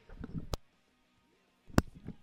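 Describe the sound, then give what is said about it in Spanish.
Two sharp, explosive sneezes about a second apart, fairly loud, caused by an allergy, each surrounded by soft breathy, murmured sounds. “Salud. Eh, la alergia, andamos, dos de tres alérgicos.”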